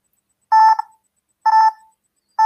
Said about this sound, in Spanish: Y si nosotros nos metemos dentro de la sombra, pues entonces la tarjeta microbit estar positiva... El aspa saldrá, el signo de, exclamación. El sonará como una alarma.